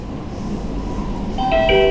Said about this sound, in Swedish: Nästa, Stadshagen. Jag tar tunnelbanan till Stadshagen som ligger på Kungsholmen.